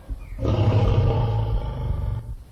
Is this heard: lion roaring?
yes